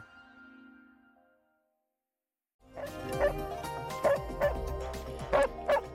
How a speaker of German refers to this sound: So bellen die klügsten Hunde der Welt. Wer da laut gegeben hat und wie man Intelligenz bei Hunden überhaupt definieren und testen kann, klären wir am Ende der Sendung.